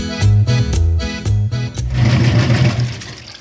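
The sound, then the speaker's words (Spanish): A washing machine winds down at the end of its cycle: a loud run of rhythmic low thumps and hums, then a steadier, noisier whirring drone carrying on alone. “¡Qué bien! Ya salió la ropa de la lavadora.”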